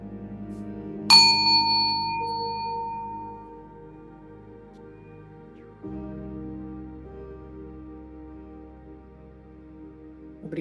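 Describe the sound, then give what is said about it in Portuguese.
A single meditation bell is struck once and rings out, its bright tone slowly fading over several seconds above a soft, sustained ambient music drone. “E ao final do som do sino, abre os olhos.”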